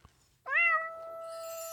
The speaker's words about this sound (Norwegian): Eh, eller kanskje vi bare skulle hatt noe bare sånn helt utrolig koselig. Hva med en liten katt?